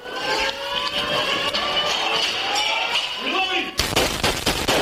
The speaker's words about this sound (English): That is the shooter's weapon firing on police cars below.